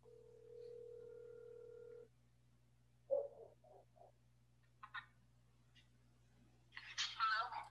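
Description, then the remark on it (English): A steady telephone dial tone hums for about two seconds, followed by a few short electronic beeps like a number being dialed, as a phone call is placed to someone's niece, with brief voices near the end. “you gonna you gonna get your niece on the phone?”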